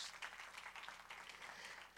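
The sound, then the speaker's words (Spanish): A crowd applauds steadily for God, many hands clapping at once into a dense, crackling wash of sound that holds at an even level throughout, with no voices standing out. “Den un aplauso fuerte a nuestro Dios.”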